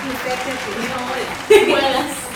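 A crowd applauds in a steady, dense patter that swells louder partway through, with a brief vocal cheer rising over the clapping.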